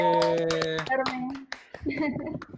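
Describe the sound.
Short burst of applause for a guest at the end of the Smash TV show, a few hands clapping in quick, uneven bursts, over a sustained tonal sound at first and then voices talking.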